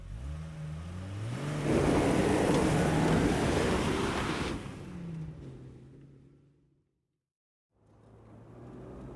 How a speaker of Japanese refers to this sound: ヨシフとレイは釣り道具を片付けた男に連れられて彼の SUV に乗り込んだ男はエンジンをかけ車を発進させた